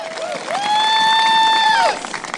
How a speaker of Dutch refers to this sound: Op de achtergrond hoort u enthousiaste fans van Elizabeth Warren.